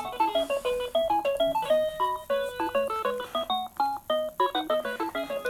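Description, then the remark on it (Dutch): A phone rings with a melodic electronic ringtone, a quick run of bright tonal notes repeating in a steady, bouncy rhythm. It is fairly loud and plays alone, with no one talking. “Terwijl de telefoon hier gaat.”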